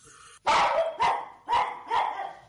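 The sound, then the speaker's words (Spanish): A dog in a film, the dog from Tom and Jerry, barks four times in quick, fairly even succession, loud, each bark sharp and full-bodied, with no one talking. “Sí, también sale un perro.”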